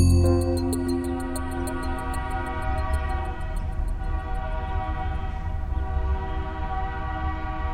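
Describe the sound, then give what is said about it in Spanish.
A train rumbles steadily with a deep, continuous low roar while a long, sustained horn blast sounds over it, holding a chord of steady tones throughout, northwest of Mexico City at the corner of Calzada de Camarones and Avenida Cuitláhuac. No one speaks. “Al noroeste de la Ciudad de México, en la esquina de Calzada de Camarones y Avenida Cuitláhuac, aún se escucha el bramido de uno de los gigantes de la revolución industrial.”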